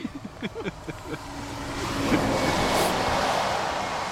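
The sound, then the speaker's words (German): A gust of wind swells into a loud, rushing roar after a few faint knocks and murmurs at the start, then holds steady as broad, blustery noise. “Eine Windböe.”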